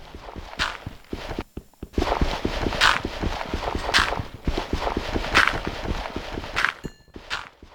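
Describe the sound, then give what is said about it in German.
Repetitive crunchy digging sounds from a video game as blocks are mined to collect flint, a steady stream of short scraping hits with louder block-breaking bursts about once a second, fairly loud with no talking. “Also, ich baue gerade, wie ihr wahrscheinlich hört, dies ab. Und das brauche ich, um mir Feuerstein zu holen.”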